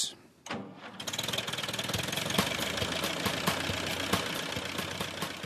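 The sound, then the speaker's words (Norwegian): The engine of the small tractor Gråtass from Norwegian children's TV sputters to life after a brief pause, then settles into a steady, rhythmic chugging idle with a faint knocking beat throughout. “Den lille traktoren Gråtass har dura og gått her i Norge siden 1995, til begeistring for mange barn og unge.”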